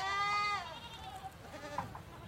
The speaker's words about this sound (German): Im Hintergrund meckern einige Lämmer, die ich mit Flasche und Eimer großgezogen habe. Automatisch reagiere ich. Sind sie hungrig? Durstig?